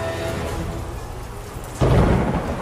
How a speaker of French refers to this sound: Il pleut de façon sporadique sous un ciel sombre, dans, une ville désertée et effrayée par des coups de tonnerre.